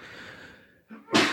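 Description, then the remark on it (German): A single sharp sneeze bursts out, preceded by a quick inhaled breath, its loud noisy blast trailing off after a moment of near silence. “Gesundheit”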